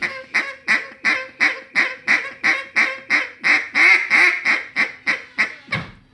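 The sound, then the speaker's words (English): A hen duck call sounds a long, steady run of about seventeen loud, raspy quacks, evenly paced, with a low whine beneath them and a lower trailing note at the end. “I want to hear that whine again on the bottom end.”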